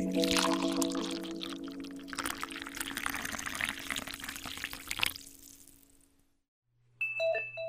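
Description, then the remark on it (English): Hot coffee pours steadily into a cup for about five seconds, a loud, rushing splash that tapers off into silence before a short, bright electronic notification chime sounds. “First thing in the morning, there's nothing like a hot cup of coffee.”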